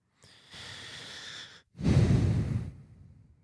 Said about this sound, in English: Heavy breathing, man.